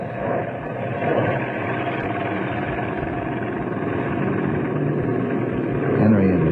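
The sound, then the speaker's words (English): A steady, droning airplane engine hums continuously for several seconds at a fairly even, moderately loud level, swelling slightly near the end. “Let's move into position while they're watching the plane.”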